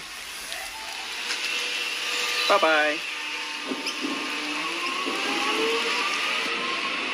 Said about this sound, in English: Anyway, we're getting a bit distracted. Bye-bye, choo-choo train. Choo-choo.